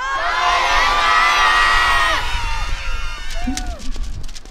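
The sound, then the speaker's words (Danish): A large crowd at Tivoli shouts goodbye together in a loud, sustained chorus of many voices for about two seconds, then breaks into scattered cheers and chatter as the sound fades. “alle sammen her i Tivoli skal vi ikke i kor sige farvel Andreas på 3, 2, 1”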